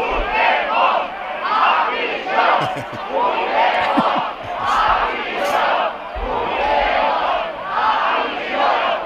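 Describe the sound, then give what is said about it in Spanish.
A large protest crowd chants slogans in loud, rhythmic bursts at a demonstration against the amnesty called by Alberto Núñez Feijó, shouting for Puigdemont to go to prison; the massed voices rise and fall in regular waves with occasional sharp claps or thumps underneath. “Este sonido es de una manifestación convocada por Alberto Núñez Feijó, a la que Alberto Núñez Feijó se dirigía.”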